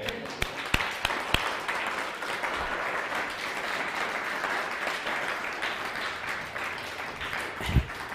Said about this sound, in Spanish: Denle un fuerte aplauso al bendito sea.